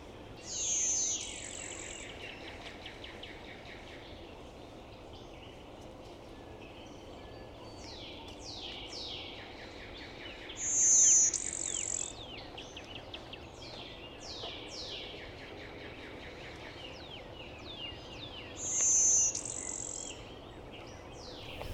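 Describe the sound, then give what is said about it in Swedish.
A blue-winged warbler, a mostly yellow wood warbler with a blue wing panel, sings its dry, buzzy, insect-like song three times, roughly every eight to ten seconds, fairly clear over a steady backdrop of faint chirping insects and other birds. “en övervägande gul skogssångare mm. men med en, en blå vingpanel”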